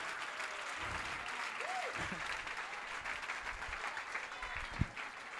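A crowd applauds loudly and steadily, a dense wash of clapping that holds at an even level throughout, with a brief whistle-like tone and a sharp thump cutting through near the end.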